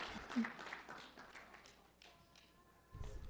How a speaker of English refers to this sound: Thank you. Let's clap for him.